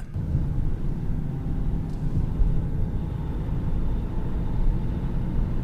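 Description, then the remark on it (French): Steady low engine drone and road rumble fill the cabin of a driving instructor's moving car during a driving lesson, a continuous muffled hum with no voices, even throughout. “Nous avons embarqué à bord de la voiture de l'enseignante de conduite”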